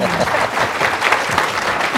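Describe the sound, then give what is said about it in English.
Steady, dense applause from an audience for the speakers as the session breaks for lunch, many hands clapping at once in a continuous crackling wash that stays loud and even throughout with no pauses. “Give these guys a warm applause.”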